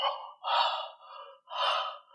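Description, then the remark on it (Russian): Deliberate breathing: two strong, breathy exhalations, each followed by a softer inhale, forming a slow in-and-out rhythm with no speech. “Они будут сначала дышать, вот звуком дыхания петь,”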